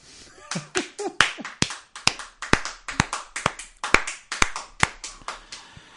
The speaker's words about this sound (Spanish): Y he terminado. Aplaudirme o no, que me da igual.